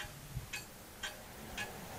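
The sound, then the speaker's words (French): An old clock in a salon, dating from the time of Thérèse, ticks steadily: three crisp, fairly soft ticks spaced about half a second apart over a low background hum, with no voices. “là, c'est un salon C'est un salon, et puis on entend le tic-tac de, l'horloge qui fut, euh, euh, oui, contemporaine de Thérèse, vous voyez.”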